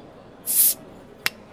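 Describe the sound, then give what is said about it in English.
A short, bright hiss of escaping gas as a bottle is opened, followed a moment later by a single sharp click, with no voices. “Sit back, relax, pop a bottle.”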